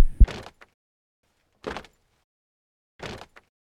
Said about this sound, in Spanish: un sonido de pasos de alguien caminando lentamente. Uno a uno se escuchaban cada vez más cerca. Poco a poco iban aumentando de volumen conforme se aproximaban.